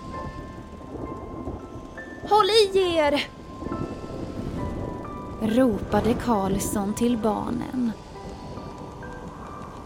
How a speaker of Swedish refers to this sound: Vinden tog fart och plötsligt var de mitt i en hemsk orkan.